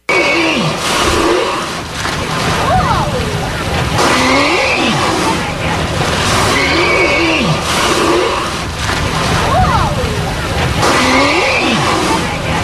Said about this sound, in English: he also makes more loud noises through his blowholes than any of the other whales we ever saw